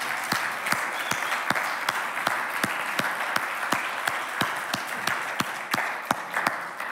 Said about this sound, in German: Wollen wir nochmal einen Applaus für Jesus geben?